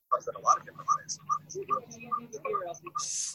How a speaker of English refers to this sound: somebody has their audio on. i got a little echo which hearing me echo in my own ears really disturbing folks